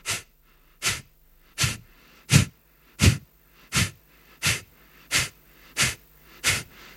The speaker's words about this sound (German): Eine einfache Weise, schnell neue Energie zu bekommen, ist zum Beispiel Kapalabhati, ist der Schnellatem. Dort atmest du schnell aus und sanft ein. Hört sich so an.